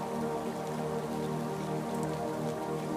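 Steady rain falling, a dense, even patter of raindrops that never lets up, with a soft sustained tonal hum running underneath. No one speaks.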